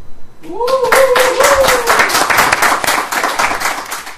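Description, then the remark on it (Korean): Brisk hand clapping, a steady run of sharp, even claps lasting several seconds, starting right after a short drawn-out vocal exclamation and fairly loud throughout, given as a teacher is introduced. “예, 아, 제, 제 소개할 때는 가만히 그냥 계시더 선생님 소개하는까 박수가.”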